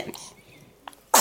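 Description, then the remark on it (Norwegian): An eleven-day-old newborn baby girl sneezes on a sofa at home: a faint little puff, then one sharp, bright sneeze right at the end, with soft murmuring in the quiet background. “Oi. Prosit. Prosit.”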